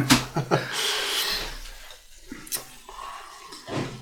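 A drink is poured into a glass, a steady splashing gurgle of liquid lasting a few seconds, broken by a couple of sharp little knocks.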